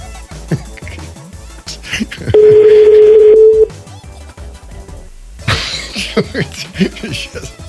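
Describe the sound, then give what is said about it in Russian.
A loud, steady telephone busy-line tone sounds for just over a second after a number is dialed and found engaged, with people talking before and after it. “Номер ну, занят.”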